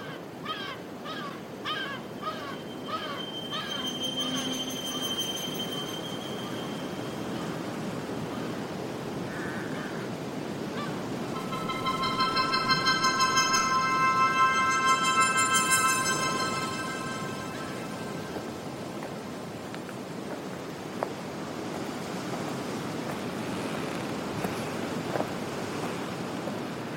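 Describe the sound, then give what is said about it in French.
A strong west wind from the Pacific roars steadily across open ground in Tierra del Fuego, a continuous broad rush that swells midway, while honking bird calls rise and fade over it. No one speaks. “Le vent balayait tout sur son passage.”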